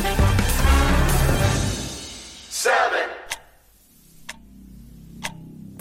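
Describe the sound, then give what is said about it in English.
A loud, dense burst of sound fades out, leaving a clock ticking alone, with single sharp ticks about one per second against a quiet, low background hum. “clock is ticking and its hands are getting close to midnight, or in the case of the Doomsday Clock, to the end of humanity.”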